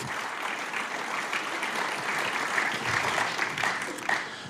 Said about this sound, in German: Was für ein Gott! Dann könnten wir mal Applaus geben. Was für ein mächtiger Sieg.